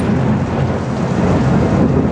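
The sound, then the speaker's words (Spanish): A continuous low rumble of thunder rolls beneath the steady hiss of heavy rain, loud, with no voices. “Mientras los novios asimilaban los rayos como luces de Navidad y los truenos como música celestial para arrullar su sueño de amor”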